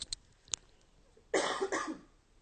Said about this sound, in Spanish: quiero toser, ahí voy.